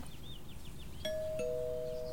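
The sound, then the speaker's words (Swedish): A doorbell at a family's front door, rung by a visiting boy, sounds a two-note ding-dong, a bright higher chime followed by a lower one that rings on, heard over a low background rumble with no talking. “Eh, den 15 oktober ringer han på våran dörr första gången.”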